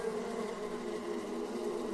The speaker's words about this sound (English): Hello, the bees are back. The bees are back and I can't get out. Can someone, someone come and help me, please?